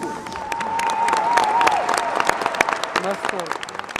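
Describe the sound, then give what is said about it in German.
Dense audience applause after a Swan Lake on ice show at the ice arena of the CSKA sports complex in Moscow in the Russian winter, a steady wash of many hands clapping with sharp crisp peaks, while crowd voices murmur and call out faintly underneath throughout. “Applaus für eine großartige Show.”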